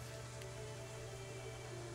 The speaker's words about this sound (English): As you kind of descend beneath the waters, the cold spring waters as the water overtakes your hearing, you can hear the muffled sounds of the rain breaking the surface.